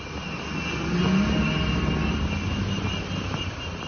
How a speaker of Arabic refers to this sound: عم نسمع صوت قافلة من الجرافات والأطقم الهندسية ورافعات الأنقاض اللي دخلت من معبر رفح بعد حوالي أسبوعين من الهدنة شفناها بتمشي في شوارع القطاع وهي حاملة الأعلام المصرية